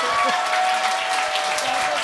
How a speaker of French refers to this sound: En ce moment, vu que tout le monde applaudit, moi, je t'aime, puis j'aime ta blonde, vous faites un beau couple.